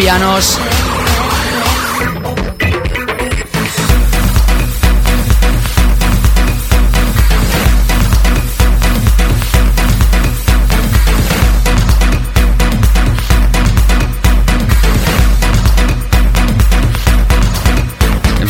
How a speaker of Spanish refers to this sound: Y lo que estás escuchando es el remix de un servidor. Aparecerá a la venta a través de Subtilbox el próximo 21 de junio. Faceta dirty, faceta contundente, faceta de peak time